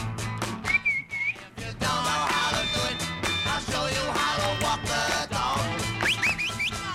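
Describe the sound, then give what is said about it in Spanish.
A quick, warbling whistle sounds early on, then a few short rising whistles near the end, whistling to call a dog, all set against a loud, dense musical background. “Bueno, eh, basta llamar al perro que van a venir, están escuchando la radio y el perro levanta las orejas.”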